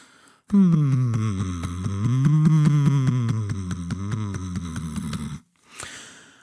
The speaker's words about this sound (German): Dann steigere ich die Intensität. Zwischendrin klopfe ich auch meinen Brustkorb ab, während ich meine Stimme entspannt weitersummen lasse. Das hört sich dann ungefähr so an.